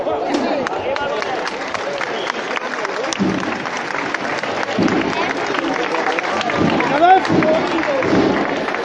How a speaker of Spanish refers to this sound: Sí, Santa Cena, que escuchéis los aplausos porque acaba de levantar de nuevo y da el primer paso a izquierda para acabar de procesionar por la calle Madre Soledad Torre Acosta